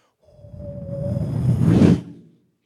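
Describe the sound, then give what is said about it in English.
A gust of wind swells from a faint hiss into a loud rushing whoosh, a thin whistling tone riding over it at first, then cuts off abruptly after about two seconds. “Can't you just hear the wind whistling in from a distance?”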